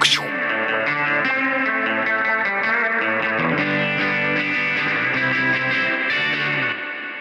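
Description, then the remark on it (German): Raw, distorted guitars and a vocal drenched in reverb from a real analog spring reverb unit, slightly overdriven so the spring bounces back, the springy echo splashing and trailing behind each note at a steady loud level before tapering off at the end. “und ich glaube, was diesen Sound, die Ästhetik von dem Song ausmacht, ist eben dieses den Federhall ein bisschen übersteuern, dass die Feder so nachspringt, so.”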